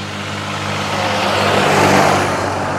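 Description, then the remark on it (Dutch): A tractor rumbles past in a nature reserve, its low droning engine and broad mechanical noise swelling to a peak midway and then easing slightly. It sounds fairly loud, with no voices. “Ja, dat was een trekker.”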